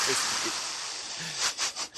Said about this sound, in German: Habt ihr mich gerade schwer atmen hören? ich hatte jetzt so einen Kunden am Automaten stehen, da habe ich mich richtig erschrocken.